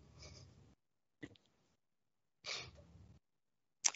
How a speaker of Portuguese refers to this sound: O … espirrou, gente.